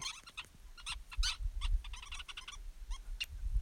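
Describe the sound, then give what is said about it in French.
A busy colony of 100 to 200 small birds chirps and twitters in dense, overlapping bursts, continuous, over a low background rumble, with no one speaking. The birds are building a giant nest about 2 m high and 4 m wide in an acacia tree, with a camp directly beneath it. “Et ce sont des colonies de 100, 200 petits oiseaux qui construisent cela.”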